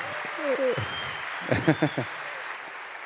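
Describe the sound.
A church audience claps in a steady, even wash of applause for a woman present, lasting the whole stretch, while voices call out over it in short bursts.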